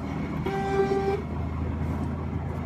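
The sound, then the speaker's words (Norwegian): The horn of an impatient truck driving behind a convertible car blares once in a steady, loud blast lasting under a second, over a constant low rumble of engine and road noise that continues after it stops. “Her er det en lastebil bak som er veldig utålmodig.”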